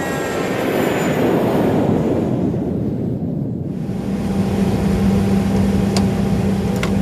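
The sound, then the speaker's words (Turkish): An airplane engine idles on the ground while the plane for the Istanbul–Kiev flight takes on passengers, a loud, steady rumble and hiss, a faint high whine early on and a low humming tone joining partway through. No one speaks. “İşte İstanbul-Kiev uçuşunu yapacak olan uçak yolcularını alıyor.”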